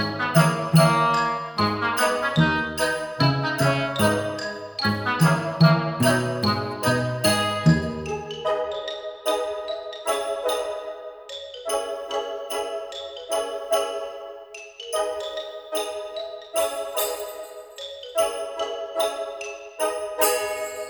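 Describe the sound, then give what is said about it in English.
A bright, tinkling instrumental tune composed by a musician and licensed under Creative Commons plays alone at a steady pace in bell-like notes. Lower accompaniment supports it at first, then drops away, leaving the higher chiming melody to continue. “music is a composition of … and is licensed under Creative Commons.”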